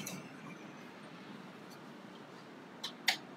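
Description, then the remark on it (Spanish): Two quick, crisp crackles near the end, the brittle crunch of a hollow fried buñuelo shell, fully crisp and hollow inside, breaking over a faint hiss with no talking. “¿se escucha? Eh, el crujiente que está, o sea, está hueco por dentro. Es una, una capa totalmente crujiente.”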